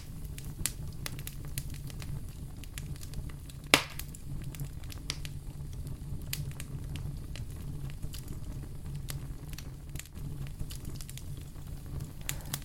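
A fire crackles steadily over a low, warm rumble, with scattered sharp pops and snaps and one louder crack partway through. No voices, just the continuous sound of burning wood.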